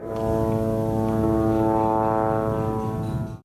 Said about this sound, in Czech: Na nebi zní izraelská letadla a noční hlídkové drony.